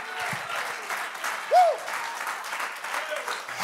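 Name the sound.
audience clapping hands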